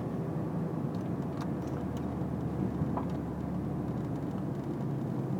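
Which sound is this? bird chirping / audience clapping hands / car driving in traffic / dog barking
car driving in traffic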